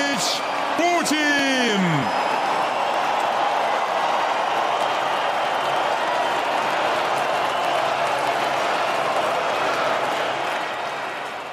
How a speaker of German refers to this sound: Spannender noch als die Ankündigung, die wie im, im Stil eines Boxrings kam, war der Jubel, der hier zu hören war. Das ist der Jubel einer riesigen, massenhaften, eines massenhaften Publikums bei einer sportpalastartigen Rede, die Putin gehalten hat